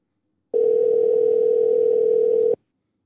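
A single steady electronic ringback tone sounds for about two seconds on an outgoing phone call to the caller's son's mother, clear and even, then cuts off abruptly, with no voices.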